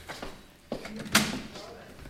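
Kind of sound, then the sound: household object, door opening or closing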